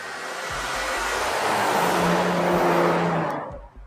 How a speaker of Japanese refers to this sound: すごいな車飛ばしてるね